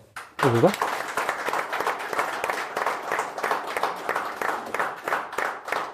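An audience bursts into steady applause for an interview guest after a long conversation, a dense crackle of many hands clapping that holds at an even level for several seconds, with a short vocal sound just as it begins.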